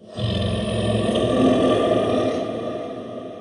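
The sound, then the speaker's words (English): A possessed woman's deep, rough growl, given after holy water is sprinkled on her feet, rises quickly and holds loud and sustained for about three seconds before easing off, guttural and menacing like a demonic roar, with no talking. “… growled louder than she did earlier.”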